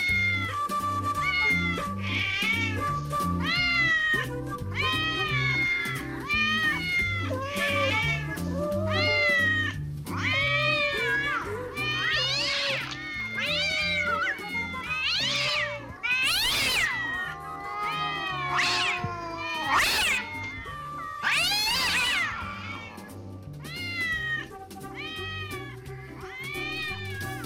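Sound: cats meowing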